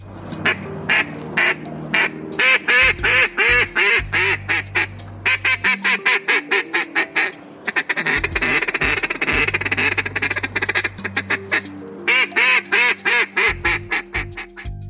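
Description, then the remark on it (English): A man blows a duck call in a loud competition-style run: rapid, rhythmic strings of imitated duck quacks with brief pauses, continuous for the whole stretch, with no talking. “he is really, really good at making duck sounds”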